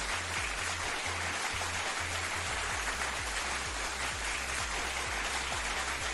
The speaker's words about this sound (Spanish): Otro aplauso para Jaimito el cartero.